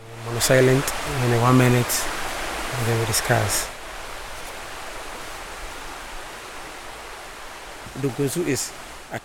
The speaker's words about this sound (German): wir sind jetzt am Fluss angekommen, in dem sie unsere VorfahrInnen gebadet haben, neben dem anderen Fluss, in den er fließt. Das ist der Otsche-Fluss und der Donko Unzu.